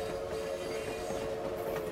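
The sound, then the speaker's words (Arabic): A steady, continuous rumble of a train rolling along the tracks through the Japanese countryside toward Kobe in autumn, with a sustained mid-pitched hum and faint rattling texture, moderately loud and unbroken throughout, no voices present. “يشق قطار طريقه عبر الريف الياباني متجها إلى مدينة كوبي يلمع على النوافذ الزجاجية انعكاس الطبيعة بأشجار احمرت أوراقها مع الخريف”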